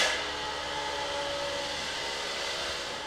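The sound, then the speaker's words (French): A milking machine, started by pressing a button, runs with a steady, loud mechanical whoosh and hum while six cows stand on each side, a constant airy rush that holds at an even level for several seconds with no voices over it. “Et du coup, nous, on va mettre la machine en route.”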